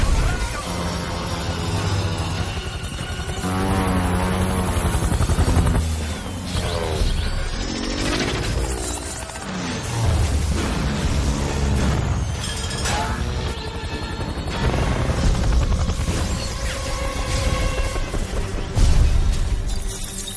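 A helicopter roars as it enters and sweeps through a room amid loud crashing and shattering, a dense, sustained wall of destruction and engine noise that stays intense for the whole stretch, with faint voices underneath.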